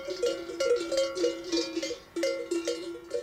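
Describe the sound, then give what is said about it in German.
Cowbells hung around the necks of cows grazing on a mountain pasture clank irregularly, several bells overlapping in a steady jangling rhythm with bright metallic tones and no voices. “Ja, da haben wir doch gleich Bilder vor Augen oder Bilder von glücklichen Kühen mit Schellen um den Hals, die auf einer Altweide grasen”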